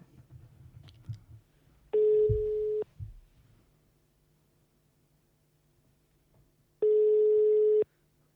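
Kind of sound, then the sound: signal or alarm, telephone call tones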